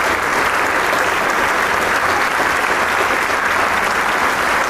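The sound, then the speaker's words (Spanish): Sustained, dense applause from a large concert audience giving an ovation to a chamber orchestra after a performance, a steady wash of clapping that stays loud and even throughout without pauses or distinct individual claps. “La camarata toma asiento mientras recibe la ovación del público que generosamente brinda su aplauso.”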